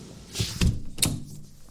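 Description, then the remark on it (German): A window is shut because rain is coming in: a short scrape and a dull thunk, then a sharper clack of the latch about half a second later, fairly loud with no talking. “Ich mach mal das Fenster zu, es regnet nämlich rein.”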